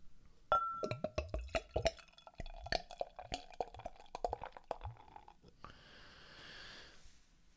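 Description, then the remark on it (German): Beer glugs from a bottle into a glass in a rapid series of gurgling splashes and clinks, then settles into a soft, steady fizzing hiss of fine-pored white foam. No one speaks. “Ja, wenn man aus dem, der Flaschenhals rausricht, äh, strömt einem schon der typische, also für einen Pilz typische Geruch entgegen, aber ich gebe es mal ins Glas, da kann man es viel schöner riechen.”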